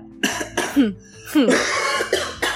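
A series of about five or six harsh, raspy coughs in uneven bursts, some with a voiced, throaty edge, fairly loud, with short gaps between them and no talking over them.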